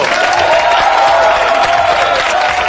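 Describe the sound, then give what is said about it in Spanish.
A loud, steady wash of audience applause with cheering voices mixed in, dense and continuous for the whole few seconds without any break or fade, as a program's four contributors are introduced. “Y ahora, por favor, un fuerte aplauso para nuestros cuatro colaboradores.”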